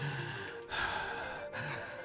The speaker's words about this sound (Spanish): Ah, también quería hablar un poquito sobre lo que escuchamos esta canción. Encima le pusieron una respiración en esa parte. Se escucha.